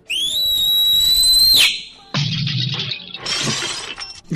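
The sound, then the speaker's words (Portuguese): A very loud, piercing human whistle, loud enough to overload the microphone, held for about a second and a half, rising slightly in pitch and sounding harsh and distorted, then cut off and followed by noisy, crackling rustle. “onde a gente grava esse assobio”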